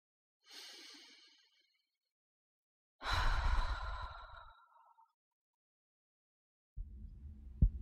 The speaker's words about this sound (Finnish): Yritin hengittää rauhallisesti ja sulin silmäni.